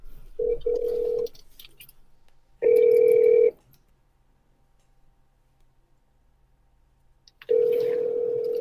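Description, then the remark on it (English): A phone's ringback tone plays over a speaker during a call that goes unanswered and reaches voicemail: steady electronic buzzing bursts about a second long, separated by long silent gaps, three rings in all. No one speaks. “I'm gonna call him again. Call him again.”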